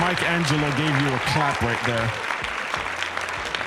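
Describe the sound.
Clapping patters steadily as a dense, noisy wash throughout, with people talking and laughing loudly over it for the first two seconds before the clapping continues mostly alone.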